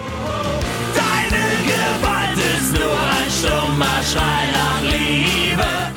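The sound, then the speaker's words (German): A loud, dense punk rock track with distorted guitars, pounding drums on a steady driving beat, and shouted vocals, playing continuously. “So, ähm, genau, gehen wir von den elektronischen Breakbeats und ähm, Hammer Sounds zurück zu den klassischen Gitarren und Punk-Sounds.”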